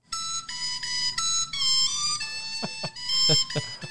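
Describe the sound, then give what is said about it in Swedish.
A short, bright, bouncy electronic children's song melody plays on its own, with quick stepping notes and a few light percussive hits near the end, lasting only a few seconds. “den heter då … och det låter så här.”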